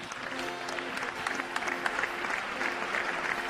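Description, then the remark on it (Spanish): An audience applauds steadily for the mayor of Vigo, Pontevedra, a dense wash of many hands clapping at even loudness throughout, with faint crowd voices murmuring beneath the clapping. “Un aplauso para ver caballeros.”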